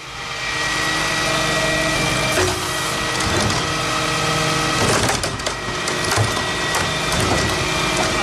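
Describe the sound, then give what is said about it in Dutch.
A diesel garbage truck's engine revs up loudly and steadily to high RPM while a wheelie bin is lifted and emptied, with clattering, crunching thuds of refuse tumbling in. “Alleen je hoort de diesel optoeren naar een hoog toerental.”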